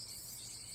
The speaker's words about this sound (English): 这是蝉鸣，也就是蝉在叫的声音。This is the sound of cicadas chirping. 蝉是一种昆虫，cicadas are a kind of insect.